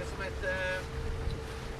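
A tour boat's engine drones steadily over a rushing wash of water and wind, fairly loud, with a brief faint tonal whine near the start, as it leaves the quay at Fuseta for the Ria Formosa, gaining speed and cutting ever larger wakes, with a group of Scandinavian tourists aboard.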